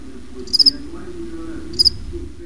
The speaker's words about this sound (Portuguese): A gente brinca que tem até um sobe-som dos grilos, né? Fica cri, cri, cri.